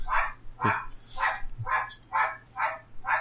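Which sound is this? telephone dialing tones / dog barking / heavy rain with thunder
dog barking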